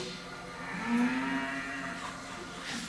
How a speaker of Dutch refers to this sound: Een koe. Een nobel en bijna heilig dier.